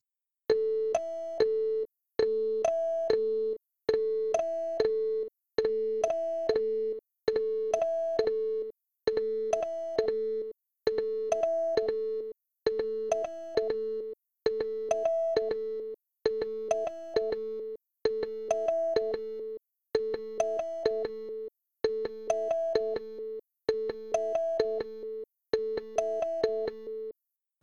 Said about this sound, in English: But um, so we have an uh, example here of all the echo settings uh, where you'll hear three quick notes play each setting.